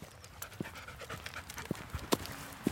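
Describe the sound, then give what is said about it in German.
A black Australian Shepherd dog pants in quick, rhythmic breaths while out walking down the Saale valley from Hammelburg, Germany, with a few sharp taps and clicks scattered through the short stretch of heavy breathing. “ein schwarzer Australian Shepherd, der gerne mit unterwegs ist.”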